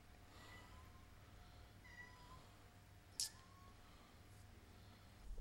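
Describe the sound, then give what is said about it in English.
A female cat meows a few times in the background, the calls fairly quiet and spread out, with a brief sharp click partway through and no one speaking. “I don't know if you guys just heard my cat meowing, but she's very she's very noisy in the background.”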